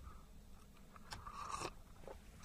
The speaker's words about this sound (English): Sorry, I had to have a quick slurp of my coffee this morning.